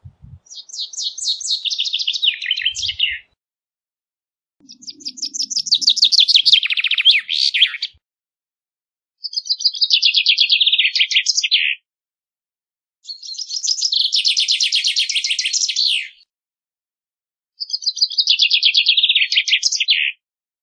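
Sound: common chaffinch song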